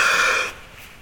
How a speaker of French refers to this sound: Pourquoi Parce que quelqu'un qui a peur, qu'est-ce qu'il fait Il prend sa respiration et il la retient. Il fait plus de bruit.